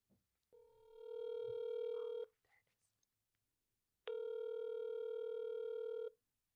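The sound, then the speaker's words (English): A phone line rings out as a call is placed: two long, steady electronic ring tones separated by a pause, clear and fairly loud, with faint breathy sounds in the gap. “So I'm going to call her right now and we'll go from there. Hopefully she answers.”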